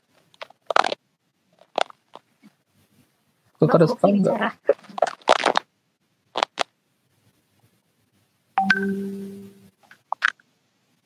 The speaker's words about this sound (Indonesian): yang lagi makan keripik itu kan?